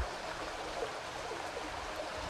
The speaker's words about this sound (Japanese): この音はですね家の中を流れる、えー、疎水っていうのの音なんですよね、えー、家の中を水が流れてるんです24時間365日、えー、ここは岐阜の恵那にある岩村の古民家に来てますけれども、え山から流れてきた水が、まあ、川に行く間家の中を流れて